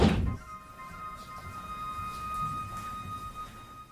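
A door in a home shuts with a solid thunk right at the start, one of two doors being closed, followed by a faint, steady ringing tone over quiet background rumble; no one speaks.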